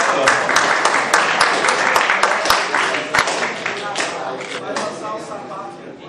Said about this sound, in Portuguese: Uma salva de palmas aí